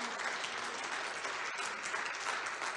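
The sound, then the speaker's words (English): A church audience claps steadily and loudly in celebration of what Christ has done, a dense wash of overlapping hand claps with no clear rhythm, sustained throughout without a pause. “You can clap.”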